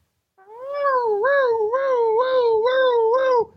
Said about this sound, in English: It's a siren. Oh my goodness! Here comes a here comes a local police officer.